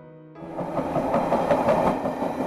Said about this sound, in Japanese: しばらくして電車が来た